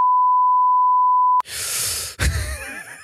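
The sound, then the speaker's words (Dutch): A censor bleep covering a spoken remark in a Dutch conversation: one steady, pure high-pitched tone holds for about a second and a half, then cuts off abruptly into a burst of noisy, breathy vocal sound. “ja, dit kan dus weer niet. En eh, jij, jij schiet er maar teksten uit constant en dan daarna janken. Miep, miep, miep, moet eruit.”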